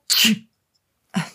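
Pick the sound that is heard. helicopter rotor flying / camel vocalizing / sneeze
sneeze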